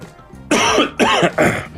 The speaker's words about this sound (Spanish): Porque si veo Caragua no puedo hablar mientras vos toses, entonces que vaya.